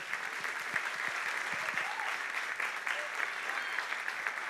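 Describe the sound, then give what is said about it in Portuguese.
A church audience applauds the Lord together, a steady dense wash of clapping from many hands that holds at an even level throughout, with faint scattered voices mixed into the ovation. “Aplaudam o Senhor.”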